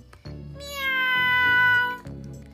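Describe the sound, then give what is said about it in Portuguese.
A single drawn-out cat meow, loud, holding a steady, strained pitch for over a second before trailing off, with soft background music underneath. “Olá, gato, que não cai.”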